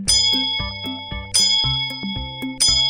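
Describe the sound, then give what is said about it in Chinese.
A bright metallic hand bell rings three times at an even, unhurried pace as the little train Karl rings it while entering a forest, each stroke leaving a shimmering, sustained tone, over a soft, bouncy low-pitched musical pattern. “卡尔一边念着从前妈妈教他的口诀，一边摇铃进入森林里。”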